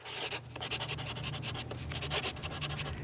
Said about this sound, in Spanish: Apagó el jacuzzi, me hizo que me saliera con él y ahí, botándose el agua en la mitad de la sala, él me escribió un nombre en un papelito, con un teléfono y me lo dio.